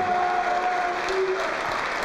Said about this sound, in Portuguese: Vamos aplaudir mais.